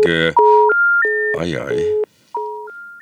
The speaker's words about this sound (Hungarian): a vonal valamilyen okban megszakadt